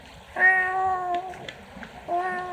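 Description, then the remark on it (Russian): A voice imitates a kitten's meow: a long, thin, high-pitched mew, then a second one starting after a short pause, fairly loud with nothing else over it. “Есть синдром кошачьего крика, когда ребенок плачет, как котик мяукает.”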